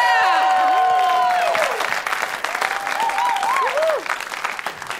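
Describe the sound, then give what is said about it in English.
A live crowd bursts into loud, sustained applause, with whoops and shouted cheers rising over the clapping throughout. “Make some noise for Brandi Brown, Yeah.”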